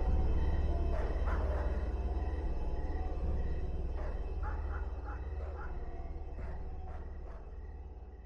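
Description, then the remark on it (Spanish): Dogs bark in scattered bursts at a house, a few quick barks at a time with pauses between, over a steady low rumble. No one speaks. “Los perros seguían ladrando y no pasaba nada más en mi casa.”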